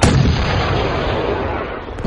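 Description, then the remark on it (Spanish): A loud gunshot sound effect, a dense, continuous crackle of gunfire that roars without pause for about two seconds, with another burst at the very end. No one speaks. “Tras volver a mirar al pueblo, donde sin lugar a dudas muchos ojos nos miraban con desprecio, vi como una de las balas surcó los aires dando justo al lado de nuestro portón.”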